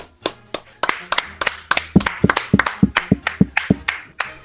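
A short burst of applause, sharp, crisp hand claps coming quickly in an uneven rhythm, as if from only a few people, lasting a few seconds with no talking over it.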